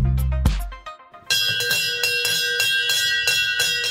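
The bell of the Brussels Stock Exchange in Belgium rings loudly, a brief opening tone followed by a sustained, rapidly repeating metallic clang that continues steadily to the end with no talking.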